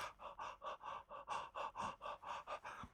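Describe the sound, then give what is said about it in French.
Rapid, shallow high chest breathing performed close to the microphone, demonstrating the breathing of someone feeling oppressed in burn-out: around eleven quick in-and-out breaths in a steady panting rhythm, with no talking. “notamment parce que, euh, ça c'est des, aspects beaucoup plus physiologiques, quand on est en burn-out, on a tendance à, se sentir oppressé, et donc on fait une respiration haute.”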